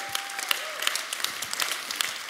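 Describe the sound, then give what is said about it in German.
A church audience at an Easter Sunday service in Nürnberg applauds one another in welcome, a dense, steady wash of many hands clapping with scattered sharper claps standing out, moderately loud throughout with no voices over it. “Hey, vielleicht geben wir uns gegenseitig nochmal einen riesen Applaus und ähm, heißt uns mal gegenseitig willkommen.”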